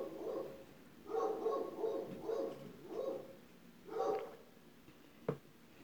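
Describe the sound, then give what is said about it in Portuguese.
A dog barks several times in a loose, uneven series, sounding somewhat muffled, followed by a brief sharp knock near the end. No one speaks. “Olha o cachorro.”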